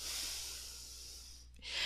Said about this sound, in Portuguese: Você vai inspirar pelo nariz e vai expirar pelo nariz. De novo, vai inspirar pelo nariz e vai expirar pelo nariz.